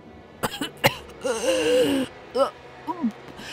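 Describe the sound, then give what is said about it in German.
A voice acts out a man's fit of wet, sputtering coughs as his body trembles and he coughs up fresh blood: two sharp hacks, then a long, strained, wheezing gasp and a few weaker choked coughs, fairly loud with no words. “Ich starrte ihn nur stumm und verängstigt an während sein Körper erzitterte und er hustete, wobei frisches Blut aus seinem Mund kam.”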